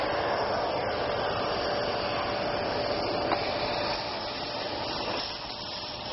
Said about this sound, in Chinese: 在地上倒上一滩汽油，点着以后立刻燃起一团火焰。接下来吸尘器要上场了。